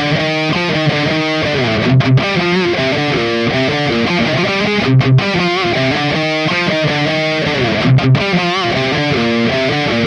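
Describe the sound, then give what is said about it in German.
A heavily distorted, reamped electric guitar through an Engl Powerball amplifier and a Mesa cabinet plays a chugging, palm-muted riff with sustained chords, loud, repeating in a steady pattern with brief gaps about every three seconds. No voices. “Also zuerst den Engel Powerball an der Mesa Box, dann den 6505 an der Mesa Box und dann den Mesa Triple Rectifier an der Mesa Oversized Box.”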